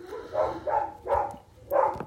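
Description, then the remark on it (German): A dog barks several times in uneven bursts, somewhat muffled, in the background, with no voices over it. “Hund wird man im Hintergrund immer wieder hören.”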